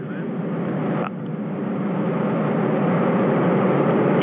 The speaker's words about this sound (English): Crew reporting they're ready to go. The vehicle on internal power. Auto sequence initiated less than 15 seconds. The engine's igniting.